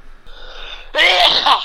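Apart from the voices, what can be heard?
sneeze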